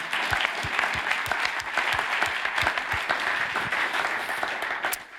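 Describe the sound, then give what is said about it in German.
An audience claps steadily for several seconds, a dense wash of many hands with sharp individual claps standing out, fairly loud throughout and tapering at the very end. “Wer klatschen will, kann jetzt klatschen, sonst klatsche ich alleine.”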